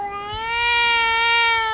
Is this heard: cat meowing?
yes